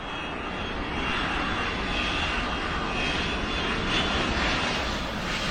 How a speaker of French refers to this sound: Je me souviens aussi qu'un dimanche, il m'avait emmené moi toute seule à l'aéroport de Lyon. On était monté le plus haut possible dans le terminal et on avait regardé les avions décoller et atterrir.